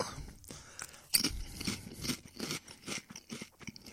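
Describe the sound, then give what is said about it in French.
Crunchy chewing of macaroni and chicken strips, a steady series of crisp, bright crunches and wet bites in an irregular rhythm, with no talking. “Macaroni with the chicken strips.”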